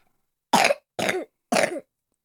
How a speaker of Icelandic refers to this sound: Þú ert alltaf að hósta. Ég veit.